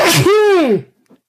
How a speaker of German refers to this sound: Gesundheit. Gesundheit.